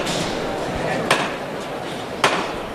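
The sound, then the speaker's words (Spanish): Two sharp, metallic knocks from the llamador (knocker) of the Misterio de la Lanzada procession float, struck to call the costaleros (bearers) into position, a little over a second apart, ringing out crisply over a steady wash of crowd murmur and street noise. “Da los tres toques al llamador para que los costaleros se pongan en posición.”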